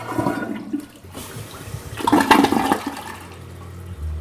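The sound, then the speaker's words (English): A toilet in a University of Colorado Boulder dorm flushes with a loud rushing surge of water that peaks midway, then drains and gurgles into a quieter hiss before fading out. No one speaks. “This automatic pre screening effort involves the normal flushing of toilets.”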